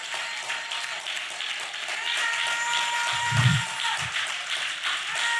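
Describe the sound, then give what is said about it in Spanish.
A steady wash of crowd applause, many hands clapping together in a dense, continuous patter at moderate volume, with a couple of low thumps partway through. “Espérese, no aplaudo.”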